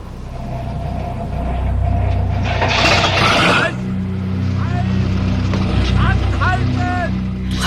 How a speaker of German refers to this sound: den Motor abgewürgt